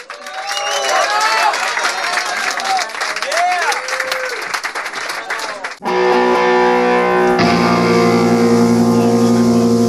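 Loud, dense applause with shouting and whistling from a crowd fills the first six seconds, then cuts off abruptly as steady music begins.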